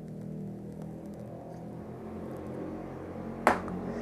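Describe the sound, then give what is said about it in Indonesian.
A passing motorcycle's engine drones steadily, a low harmonic rumble that holds for several seconds, with a sharp click or snap breaking through near the end. “ada motor melewat kalian pasti tidak tahu karena nanti kalian tidak melihat saya mah saya juga mendengar doang”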